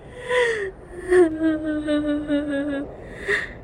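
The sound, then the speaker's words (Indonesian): A woman sobs and whimpers: a sharp, breathy gasp, then long, quavering wailing cries that sink in pitch, ending on another shaky intake of breath. “Terusnya sambil menangis terisak-isak”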